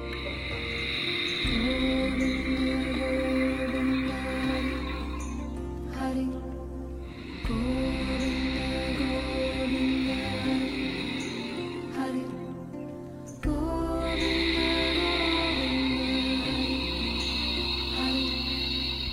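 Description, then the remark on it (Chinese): Slow, loud, raspy breathing forced through a tightened throat during a meditative breathing technique, sound made on both inhale and exhale: three long drawn-out breaths, each lasting several seconds, separated by brief pauses, with a steady hoarse hiss and no talking. “这个呼吸的技法需要我们将喉咙收紧，吸气和呼气尽量发出声音，通过挤压我们的喉腔而发出声音。”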